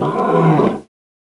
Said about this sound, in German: Fragt die Nachbarin über den Gartenzaun. Ist das Ihr Allosaurus, der da so brüllt?